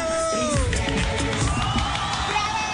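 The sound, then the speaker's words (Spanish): A loud, dense burst of crowd cheering and whooping with what sounds like applause mixed in, greeting the introduction of Tarcicio Maya, steady for a few seconds, with rising shouts and whistles riding over the noise. “El gran Tarcicio Maya aplauso a ver qué dice el corresponsal.”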